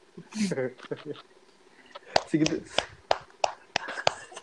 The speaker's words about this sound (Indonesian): Tepuk tangan yang gemuruh.